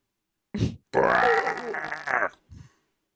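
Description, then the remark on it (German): A voice mimics the growl of a big, bad bear: a short low grunt, then a long, loud, raspy snarl lasting over a second, followed by a brief low huff. “Ja, wenn du sagst Haare und dann drehst du dich vielleicht so rum, um dann äh, das Ding, dann steht ein großer böser Bär vor dir.”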